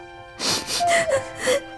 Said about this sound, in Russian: не плачь